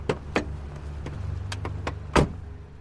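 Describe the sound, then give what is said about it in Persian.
A car being parked: a low engine hum underneath, a few sharp mechanical clicks and thumps, then a louder clunk near the end, with no talking. “ماشین رو پارک کردم و با هم پیاده رفتیم سمت خونه پلاک 58”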